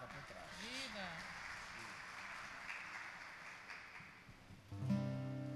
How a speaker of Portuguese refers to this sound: Vamos aplaudir.